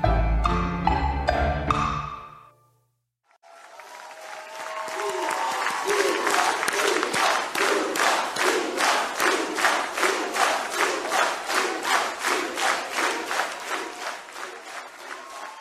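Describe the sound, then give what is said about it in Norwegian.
A brief musical sting ends, then a large crowd erupts into loud, sustained cheering and shouting, with rhythmic clapping or chanting pulsing steadily through the roar, at the Labour Party (Arbeiderpartiet) election night party in autumn 2021. “Valgnatta høsten 2021 så sto jubelen i taket på Arbeiderpartiets valgvake.”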